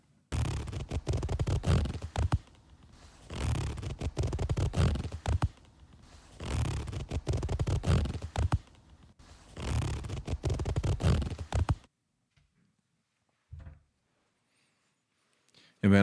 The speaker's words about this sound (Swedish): med den här fingret ja, som du drar exakt, på den hårkammen